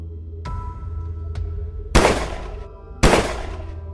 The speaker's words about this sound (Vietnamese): Bỗng nhiên có tiếng súng nổ đột ngột vang lên